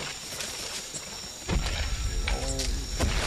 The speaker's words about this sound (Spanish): unos golpes profundos lejanos como si algo enorme se estuviera acercando. Y entre, entre esa niebla, eh, acompañado de ese ruido de inmensos pasos, podéis ver unas criaturas extrañas, raras.